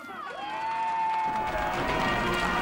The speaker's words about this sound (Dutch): Luid gejuich in Taiwan. Op een podium werd het woord SARS in letters van ijs helemaal kapot gehakt.